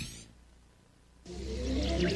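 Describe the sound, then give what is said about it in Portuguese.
After a brief stretch of low rumbling, car brakes let out a loud, sustained squeal with shrill, wavering tones over a rough mechanical roar. “Freio do carro do ouvinte da Mirante.”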